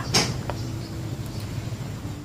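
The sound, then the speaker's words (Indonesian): A bedroom door latch clicks open with a sharp metallic click, followed by a fainter second click, then only a low background hum remains. “Tak lama kemudian, cekrek pintu kamar pun terbuka.”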